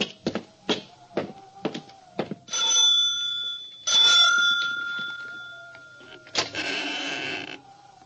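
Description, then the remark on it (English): The doorbell of a big, lonely ten-room house in the middle of nowhere rings: a quick series of bright metallic dings, then two longer sustained chimes that ring out and fade, with a final burst of ringing. Clear, with no voices. “I expected Mrs. Carstair to answer the doorbell.”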